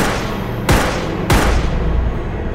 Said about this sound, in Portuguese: O Leandro, né, um, dos, um dos envolvidos, teria atirado três vezes na vítima.